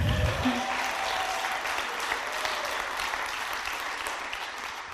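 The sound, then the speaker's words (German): An audience claps steadily for several seconds, a dense, even wash of many hands with no talking over it. “Gib dir nochmal einen Applaus, komm on.”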